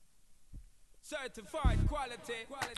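A pop song starts after a near-silent second with a lone low thump, then a singing voice and busy melody come in over a deep, thumping bass beat that swells loudly midway.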